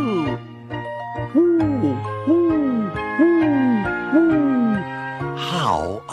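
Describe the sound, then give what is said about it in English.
A voice imitates an owl with four evenly spaced hoots that swoop up and down, set over steady sustained musical tones, then a higher sliding squeal at the end. “He can go like an owl.”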